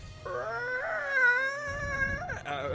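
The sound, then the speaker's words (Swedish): A voice imitates the cry of a hawk in space, one long, high, wavering screech that holds for about two seconds, then bends upward and breaks off, over a low rumbling background. “Det, äh, det är så hök eh, rymdhökljud.”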